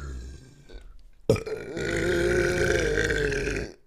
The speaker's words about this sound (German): Wenn du darauf hinaus willst, dass du rülpsen kannst, ja. jetzt hier Okay, dann, dann, rülps dann rülps einmal und dann denke ich in der Zeit nach.